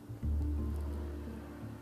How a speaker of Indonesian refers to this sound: ya motor lewat